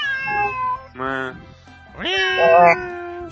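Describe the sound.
A person mimics a cat's meow three times in a row, with clear, drawn-out, pitch-bending calls and brief pauses between them.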